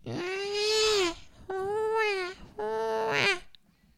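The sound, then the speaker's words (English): A voice imitates a baby crying in three loud, wailing bursts, each a sustained rising-and-falling cry with brief pauses between, with nothing else behind it. “And then a baby cry.”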